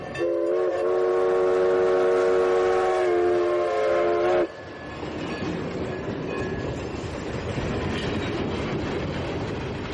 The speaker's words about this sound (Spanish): Sí sabes que es un tren, ¿va?